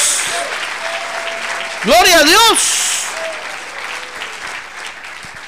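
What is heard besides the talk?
audience applauding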